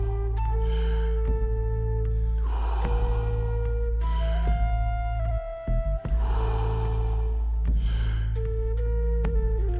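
Forceful deep breaths drawn in and pushed out in a steady rhythm during a guided breathing exercise, several cycles over a sustained droning musical backdrop with no talking.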